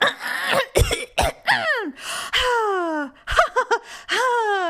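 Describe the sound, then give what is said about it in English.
A single voice imitates a character coughing and clearing their throat on a TV show or movie: several sharp, harsh cough bursts mixed with strained, drawn-out vocal rasps and gasps, repeated in an uneven rhythm. “or claw, cough or blink or like eye wipe right.”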